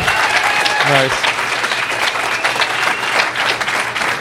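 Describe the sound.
A group of people claps for a contest winner in steady, dense applause that carries on for several seconds, with a brief voiced whoop rising through it near the start.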